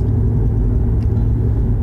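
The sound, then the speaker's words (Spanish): A steady low rumble of a car driving down the road, heard from inside the cabin, with constant road noise and engine hum throughout and no speech. “No sé qué tan buena idea sea grabar el podcast mientras conducimos, realmente.”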